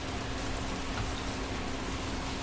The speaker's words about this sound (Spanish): Ya se puso melancólico, empezó a llover y Sí, está lloviendo.